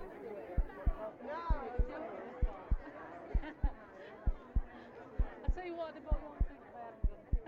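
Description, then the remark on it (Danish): A steady heartbeat thumps in regular lub-dub pairs, deep and prominent, over a busy background of overlapping voices and crowd chatter. “Du skal lytte til byens hjerteslag.”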